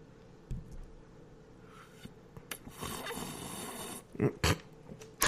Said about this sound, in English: Hang on, I'll give it a, the ASMR sip. Let me lean in real close here.